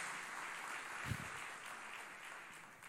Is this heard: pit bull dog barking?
no